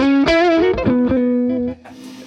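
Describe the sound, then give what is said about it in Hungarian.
A loud, heavily distorted electric guitar tone played through an effects unit, with a buzzing, harmonic-rich sustain, plays a few held notes with small pitch shifts, then abruptly drops to a quieter, fizzier tail near the end. “maradjon fenn egy picit, picit nekem kezdett szétesni a hangja.”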